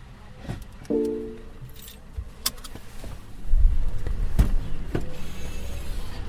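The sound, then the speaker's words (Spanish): Clicks of a seatbelt being released inside a car stopped at a public electric charging point, a short motorized whir, then thumping and rustling as a door opens and someone climbs out. No talking. “Me quito el cinturón. voy a abrir el, capó delantero, que es donde tengo el cable.”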